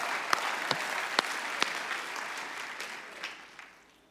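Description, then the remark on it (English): An audience gives a round of applause: dense, steady clapping from many hands with a few sharp individual claps standing out, holding strong before tapering off toward the end. “Dad used to say, don't patty cake, give him a big round of applause.”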